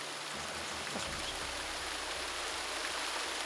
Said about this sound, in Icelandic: Ofarlega í Þjórsártal og Suðurlandi er Foss sem heitir því skemmtilega nafni Foss ár Foss.